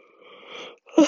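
A breathy yawn rises slowly for about half a second, falls briefly quiet, then ends in a louder exhaling gasp with no talking.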